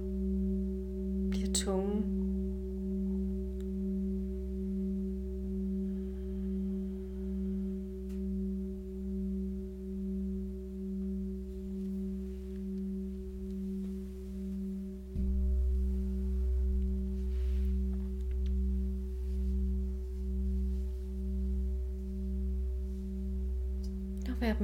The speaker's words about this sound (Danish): Når der opstår en tanke, så bare slip den og vend tilbage til lyden af skålen.